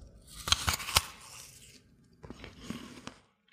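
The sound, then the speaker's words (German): A crisp, crunchy bite into an apple, with sharp cracking snaps, followed by a second burst of softer wet crunching as it is chewed. No talking. “Jetzt rieche ich es nochmal dran und jetzt achte ich mal, wie hört sich das denn an, wenn ich abbeiße?”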